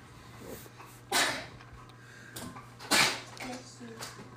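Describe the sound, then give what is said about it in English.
Two sharp sneezes about two seconds apart, each a loud explosive burst standing out against a quiet background with a faint steady hum. “Bless you.”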